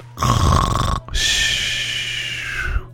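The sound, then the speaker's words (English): A voice imitates the snoring of sleeping airplane pilots: a rough, rattling inhale followed by a long, whistling wheeze of an exhale, loud, with no other talk during it. “we're sound asleep”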